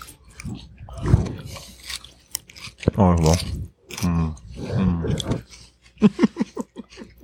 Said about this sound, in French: on avait fait euh, une petite dégustation de légumes croquants